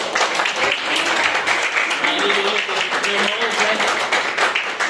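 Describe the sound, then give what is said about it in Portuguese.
An audience applauds in a steady, dense wash of clapping that stays loud throughout, with faint murmuring voices mixed underneath. “Eu agradeço a oportunidade e as palmas que adorem ao é Senhor.”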